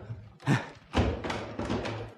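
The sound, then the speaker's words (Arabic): A heavy stone door thuds open: two deep, loud knocks a half second apart, followed by a rough scraping rumble as the slab grinds along. No voices. “الباب انفتح ياه ده سلم حجر”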